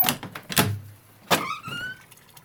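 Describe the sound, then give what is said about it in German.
A door opens as someone goes out the door: a few sharp clunks of the latch and handle, then a short, rising creak from the hinge, with no one speaking. “Und wenn ich vor die Tür gehe, dann höre ich noch was anderes sprudeln.”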